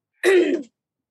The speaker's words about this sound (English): That's fine. it gives okay. me a chance to cough. I'm sorry. I'm sorry.